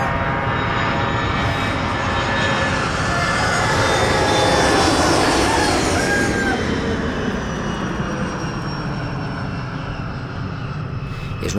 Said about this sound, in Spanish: de los pratenks y pratencas creen que el sonido de los aviones es el sonido que identifica el Prat. Hace años que los aviones no pasan por el Prat, pero ese sonido no ha desaparecido.